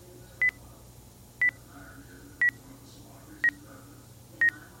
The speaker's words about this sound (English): It was fun to hear that progress indicator ticking down.